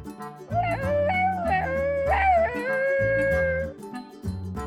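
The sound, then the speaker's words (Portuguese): A dog howls in long, wavering, rising and falling tones that hold for several seconds, fairly loud, over a steady rhythmic low thumping in the background. “Ela faz esse uivo quando está feliz.”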